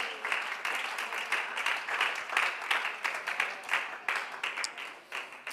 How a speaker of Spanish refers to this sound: Alguien lo puede alabar con su corazón, alguien lo puede aplaudir con más vida en esta hora.